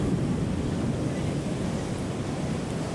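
Steady rushing surf and gusting wind at the shoreline, a continuous, fairly loud wash of noise with a deep rumble and no distinct individual wave breaks or voices.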